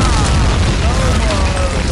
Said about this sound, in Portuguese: Olha essa bombinha!